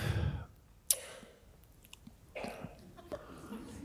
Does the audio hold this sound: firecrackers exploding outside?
no